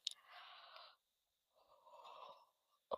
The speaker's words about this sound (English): Oh my goodness, the yawning. I should start making a yawn counter.